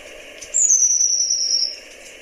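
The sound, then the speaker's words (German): A long-tailed tit's alarm call: one thin, very high, drawn-out whistle that slides slightly downward over about a second, clear above a soft steady background hiss. “Das ist wohl der Alarmruf hier.”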